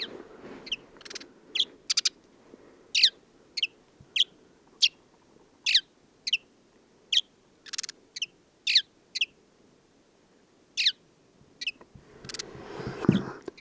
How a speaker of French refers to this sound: en Mauritanie, discussion avec un moineau blanc, le moineau du désert.